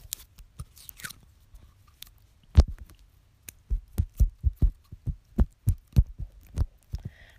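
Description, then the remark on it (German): Wet, squishy, clear and runny unicorn slime squelches, with a few scattered pops at first, then a quick, steady run of about a dozen fart-like squelching bursts. “Der kann noch furzen.”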